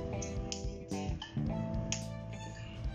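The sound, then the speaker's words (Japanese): A cinnamon stick, a whole spice for cooking, snapped by hand into pieces as small as possible: four or five sharp, dry cracks at irregular intervals, fairly loud, over a steady tonal background hum or music. “味のあまり出なさそうシナモンからいきましょうこれを、まあ、なるべく小さく手でバリバリあって”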